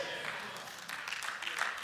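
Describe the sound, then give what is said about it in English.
An audience applauds in a steady wash of clapping, fairly subdued, with a few brief voice-like sounds mixed into the noise. “Yeah, I know it's not an exciting thing to applaud, but it's the truth.”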